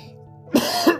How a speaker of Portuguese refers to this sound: É, não, vou, não vou editar a tosse. Né? Até meu gato assustou.